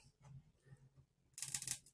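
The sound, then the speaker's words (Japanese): Scissors cutting through a stiff panel, a short burst of crisp, rasping snips lasting under half a second, preceded by quieter low handling noises. “もう、ハサミで切りたい。ハサミでいけないこれ。”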